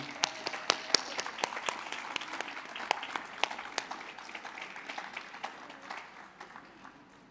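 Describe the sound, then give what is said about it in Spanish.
An audience at a poetry event breaks into applause to welcome a poet, a dense patter of many hands with sharp individual claps standing out, holding steady for several seconds and then gradually thinning and fading out. “Aplauso para que se anime.”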